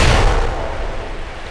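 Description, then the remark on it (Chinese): Homemade explosives made from island iron ore, lime and seaweed ash, poured into a cave beside a lake, detonate with a loud, sudden boom that rolls into a long, rumbling roar, its deep low end pulsing and fading only slightly over about a second and a half. No voices. “他们把炸药倒进湖边的洞穴，然后引燃爆炸。”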